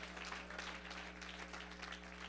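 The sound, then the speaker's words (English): An audience claps hands together as they take their seats in the house of the Lord, in a dense, steady wash of applause, many overlapping claps blending into a continuous crackling roar with a low steady hum underneath. “Clap your hands one more time as you are seated”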